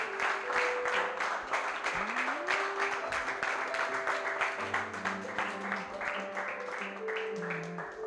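A church audience claps loudly and steadily for several seconds as applause for the Lord after a closing prayer, a dense wash of rapid hand claps, with sustained tones from an instrument or voices holding notes underneath.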